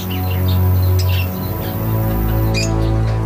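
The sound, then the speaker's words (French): Scattered chirps and tweets from exotic birds kept as a hobby come in short bursts, a few near the start and a brighter cluster toward the end, over a steady low droning hum. “Daniel Cano, qui était toujours patraque, a alors voulu s'occuper de ces oiseaux exotiques, son dada.”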